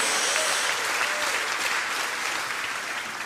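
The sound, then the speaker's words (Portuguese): A standing church audience applauds the Lord loudly, a dense, steady wash of many hands clapping that holds for a few seconds and eases slightly toward the end, with no voices rising above it. “Se você crê nisso, dá uma salva de palmas ao Senhor. Dá bem alto.”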